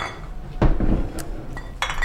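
Glasses clink together in a toast, a handful of bright knocks and chimes spread over a couple of seconds against a low hum, with no one speaking.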